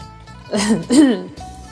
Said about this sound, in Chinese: 钱满忍不住咳嗽了两声，勉强道。